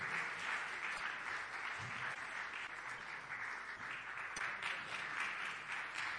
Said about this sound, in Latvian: Un aplausi negribēja rimties, mīļie.